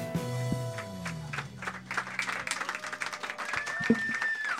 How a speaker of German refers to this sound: So, nochmal Applaus für die drei.